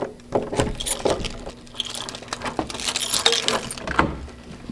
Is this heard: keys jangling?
yes